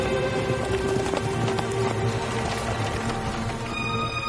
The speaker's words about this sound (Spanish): Los caballos galopan y tiran de la diligencia junto al curso del agua flanqueado por árboles. La diligencia sube una pendiente hasta alcanzar un valle enmarcado entre montañas rocosas.